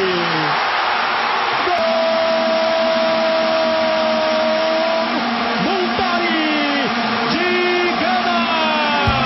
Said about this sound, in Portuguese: Você ouviu Kleber Machado e muitas vuvuzelas com o gol de Gana